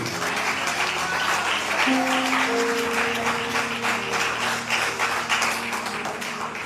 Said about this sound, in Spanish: Den un aplauso fuerte al que vive.